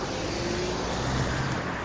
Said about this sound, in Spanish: Estoy tirando por otro camino y ahora mismo hay coches, pero dentro de nada no vais a escuchar casi ninguno, porque voy ahora a la universidad y, y digo voy a ir andando y así de mientras voy grabando el podcast.